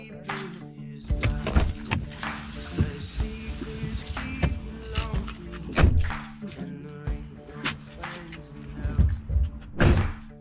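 Car doors thunk shut several times in a row, solid, with rustling and movement between them as people climb out of a vehicle pulled up at a sheriff's office, over a low steady engine hum.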